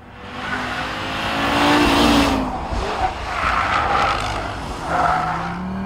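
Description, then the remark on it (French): An Audi turbocharged five-cylinder car engine with a 1-2-4-5-3 firing order roars loudly, its pitch rising and falling through hard revs, with tyre squeal and a harsh, raspy exhaust note throughout. “Maintes fois primé comme moteur de l'année dans sa catégorie, le 5 cylindres turbo de Audi est doté d'une sonorité absolument fabuleuse en raison de sa séquence d'allumage décalée de 1, 2, 4, 5, 3”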